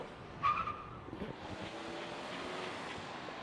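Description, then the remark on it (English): A car rolls by on the main street of Williams, Arizona, at about 4 o'clock on a Sunday afternoon, its broad engine and tire noise rising and holding steady, with a brief higher squeal near the start and no voices. “And this is the main drag at about 4 o'clock on a Sunday afternoon.”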